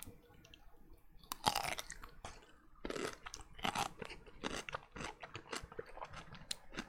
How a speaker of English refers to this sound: Okay. It's there, God right? Damn. Did you hear that? That's a crunchy pickle. It's a crunchy ass motherfucking pickle right there.